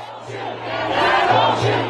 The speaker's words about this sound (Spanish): Vamos a, vamos a ver el siguiente reportaje eh, de la cadena Euronews sobre precisamente todo lo que ocurre en Estados Unidos con con las manifestaciones. Con los brazos en alto y gritando, las vidas de los negros importan y no disparen.